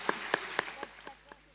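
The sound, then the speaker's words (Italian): Students at the Collegio Arcivescovile applauding their teacher: a short run of sharp, evenly spaced claps, about four per second, loud at first and then growing softer and sparser as the clapping dies away. “Quindi facciamole un altro grande applauso perché avrà tanto da lavorare.”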